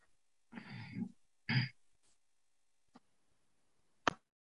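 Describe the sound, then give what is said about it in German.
Someone clears their throat in two rough, raspy bursts, the first longer than the second, followed by near silence, a faint tick and one sharp click near the end. “Ich höre da einen Räuspern.”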